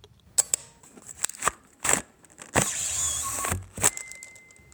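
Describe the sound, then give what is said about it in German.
Mechanical clicks and snaps from an old Polaroid 320 instant camera, then a longer whirring stretch as if film is pushed out, followed by a final click, with no talking. “Das war eine alte Sofortbildkamera, eine Polaroid 320.”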